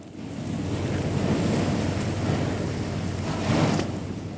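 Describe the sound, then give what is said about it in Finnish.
Antarctic sea ice breaking under a ship's bow, heard while standing on the ship's deck: a steady, heavy rushing rumble of grinding and churning, swelling into a louder crunching surge near the end, with no voices. “Tältä kuulostaa, kun seisoo laivan kannella ja Etelämantereen merijää murtuu keulan alla.”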